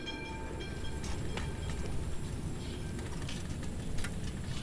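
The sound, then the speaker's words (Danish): An electric tram rumbles steadily along street rails on Østerbrogade, with continuous low mechanical noise, faint metallic squeals and a few brief clanks, without any voices. “Men hvis cyklen dengang alligevel blev for udfordrende, kunne du allerede i 1901 tage den første elektrificerede sporvogn ned ad Østerbrogade.”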